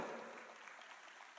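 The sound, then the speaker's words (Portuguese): A crowd claps together in a dense, steady patter for the volunteers forming a tunnel, softening slightly toward the end, with no voices over it. “Olha lá, uma salva de palmas para nossos, o nosso túnel.”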